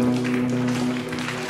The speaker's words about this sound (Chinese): 我们一起拍手。